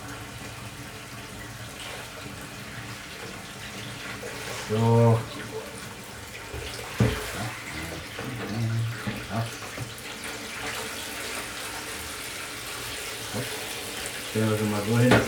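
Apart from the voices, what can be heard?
tap water running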